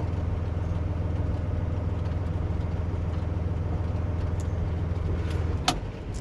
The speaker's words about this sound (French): On l'entend, vous avez remis un petit peu du gaz là, parce qu'on est sur une partie plate. Voilà, donc là on est à 30 km/h dans la gare, et puis on est à 850 tours moteur.